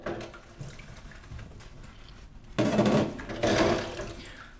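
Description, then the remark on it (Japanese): Running water splashes at a sink as dishes are washed with Family Fresh Compact dish detergent, with soft clinks and rubbing, swelling into two louder gushes near the end, with no one speaking. “洗う音｜食器洗い洗剤”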